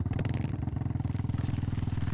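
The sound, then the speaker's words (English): Two motorcycle engines idle in neutral as the bikes coast down a road toward an old power plant, a steady, rapid low thumping, fairly loud, holding an even rhythm throughout without revving. No voices are present. “The two motorcycles coasted down the road to the old power plant, engines running, but in neutral to minimize noise on this final approach.”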